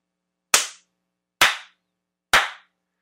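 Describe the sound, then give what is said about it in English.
Three sharp, loud slaps ring out one after another at an even pace, each a crisp smack with a brief decay, with quiet gaps between and no voices. “Three slaps and, and one desperate plea to be wanted.”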